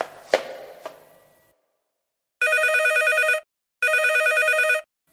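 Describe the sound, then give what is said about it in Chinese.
Two sharp knocks, then a telephone rings twice, each ring a roughly one-second burst of bright, rapidly trilling bell tone separated by a short pause. No one speaks. “电话声响了”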